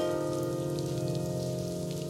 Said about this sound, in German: Da läuft irgendwo eine Klo Klospülung im Hintergrund, oder? Ja, das ist auf dem Song. Klingt so, als würde da irgendwie Wasser laufen.